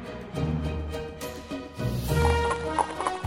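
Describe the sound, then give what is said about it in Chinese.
Horse hooves clip-clop in a quick, steady rhythm of sharp knocks, moderately loud, over a sustained low tonal backdrop, with no one speaking, as a gentleman rides up on a horse that suddenly turns wild and charges toward a long bench. “这时候，有一位绅士骑着马走过来，那匹马突然野性大发，接着就冲向了两个人所坐的长椅子。”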